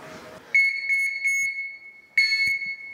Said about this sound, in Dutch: Dat is harder dan een autoklakson volgens mij, toch? Ja, ze horen je wel aankomen als je toetert.